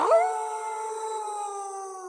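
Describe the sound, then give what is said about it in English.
A single long, eerie werewolf howl that swoops up sharply at the start, then holds a steady, sustained note for about two seconds, loud, with no voices. “Oh, oh yeah, wolf boy, let's do it.”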